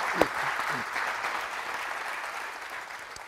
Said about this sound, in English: Give God applause for